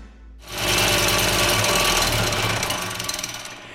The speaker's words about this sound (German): Das ist eine Siebanlage zur Baugrunduntersuchung.